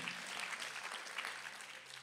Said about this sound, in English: Somebody clap for that one right there.